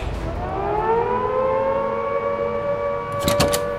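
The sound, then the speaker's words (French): A loud prison alarm siren, sounded in the early morning after guards find three cells empty, wails steadily, its tone sliding slowly upward and holding a sustained, rising pitch, with a few sharp clattering noises near the end. “On sonne l'alarme.”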